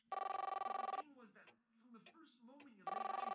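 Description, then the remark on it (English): A telephone rings in two loud, rapidly trilling bursts, one at the start and another near the end, with someone talking in the gap between them, as a caller waits for the police department to answer. “Can't you ring them direct? Ringing the police department?”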